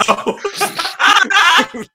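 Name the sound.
sneeze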